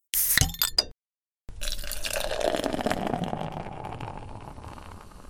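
Beer is poured into a glass in one steady stream lasting several seconds, the pitch of the splashing rising as it fills, after a few brief clicks and a short pause.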